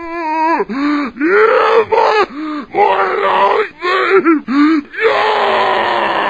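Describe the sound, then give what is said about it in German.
Loud, strained zombie screams from a video game, a rapid series of harsh, guttural groaning howls with wavering pitch, ending in a long raspy roar. No talking. “Übrigens auch nochmal Fun Fact zu den Zombies und dem Geschrei, wo du es gerade sagst.”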